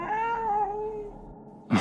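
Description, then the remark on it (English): A single drawn-out cat meow, tonal and slightly wavering, fading over about a second, followed by a short breathy burst of noise near the end. No one speaks. “Is that a cat?”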